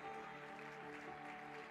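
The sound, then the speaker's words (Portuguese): An audience applauds in a steady, dense wash of clapping that holds at an even level, with sustained musical tones humming underneath and no voices standing out. “Dê júbilo de glória para o seu chamado aí, aplauda ele.”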